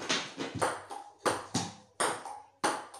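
A table tennis rally: a quick, steady series of sharp, bright clicks as the ball is struck and bounces, about two per second, each with a short ringing decay. No one speaks.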